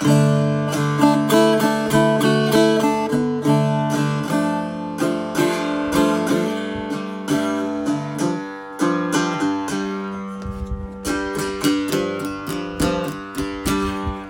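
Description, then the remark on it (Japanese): An Irish bouzouki made by the Romanian instrument maker Hora, played solo: bright plucked strings ringing in a steady, lilting rhythm of picked notes and strummed chords, clear, with no voices. “まあこの楽器結構なんかあの向こうではルーマニアまあ欧州ヨーロッパでは有名な楽器メーカーみたいで、まあ、こんな音がするんですけどね。”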